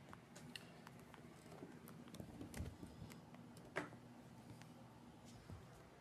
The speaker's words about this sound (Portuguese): Eita, cheio de toque no teclado.